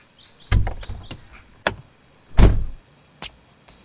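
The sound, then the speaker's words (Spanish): A car glove compartment is handled and shut as papers are hidden inside: a few plastic clicks and rattles, one solid thump, then a couple of sharp latch clicks, with faint chirping in the background. “Bueno, voy a esconder estos papeles en la guantera.”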